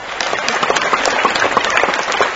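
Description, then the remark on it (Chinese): An audience at a Guan Yin Citta (心灵法门) Buddhist talk applauds steadily, a dense, even wash of many hands clapping at once, fairly loud and sustained throughout with no voices. “鼓掌。”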